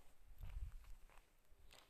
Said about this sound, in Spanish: Hola, querido oyente, que estás por ahí, escuchando esto ahora mismo. Escuchas los pasos.